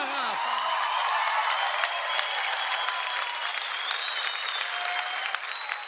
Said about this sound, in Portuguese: Filho de Livramento, uma salva de palmas para esse grande nome,